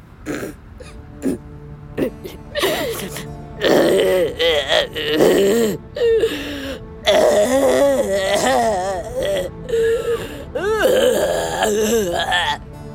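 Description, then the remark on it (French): A voice imitates a dinosaur crying, with timid, wavering groans and moaning sobs in uneven bursts over about thirteen seconds, fairly loud, with brief pauses between cries. “Ça, les enfants, c'est un dinosaure qui pleure.”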